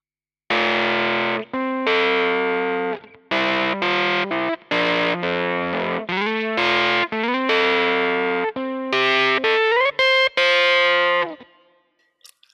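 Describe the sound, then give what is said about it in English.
Heavily distorted electric guitar, a DI track reamped through a Kemper Profiler amp profiler, plays a loud riff of chunky sustained chords and single notes for about twelve seconds, then rings out and fades. No one speaks. “KEMPER PROFILER - Tones & Talks - USB #2 Reamping”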